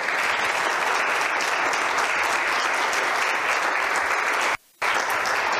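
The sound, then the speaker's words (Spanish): An audience applauds young people who are serving the Lord, in a steady, dense wash of clapping that holds at an even loudness, broken by a brief silent gap near the end before resuming. “Denle un aplauso a estos jóvenes que están sirviendo al Señor.”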